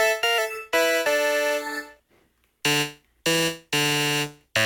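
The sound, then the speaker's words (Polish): A voice sample turned into buzzy 8-bit chiptune tones, loud, sounding as short bursts with stepping pitches, a brief pause, then three more blaring sustained notes. No talking. “A najlepsze jest to, bo to dosłownie go zmienia w 8 bit.”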